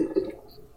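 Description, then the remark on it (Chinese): Water runs through a neighbour's drain pipes in a top-floor attic flat as the neighbour keeps clearing his pipes, a faint, muffled low gurgle. It swells briefly at the start, then settles into a soft, steady burble. No one speaks. “因为我隔壁在 已经睡了 一直在清他的水管，我在想说他是不是昨天喝到吐，然后吐在洗手台，然后洗手台塞住，所以他在那边清水管，然后就你知道隔音就很差，所以你们就可以听到这些声音。”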